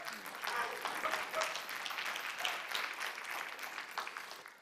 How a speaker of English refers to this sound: Hallelujah. Amen. Yeah, go on. Give the Lord a clap.